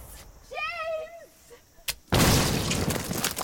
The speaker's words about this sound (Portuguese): Caralho! Que foi isso? What the fuck? Era uma mina. É, ela não era canhão, era uma mina, né? Ela era uma mina.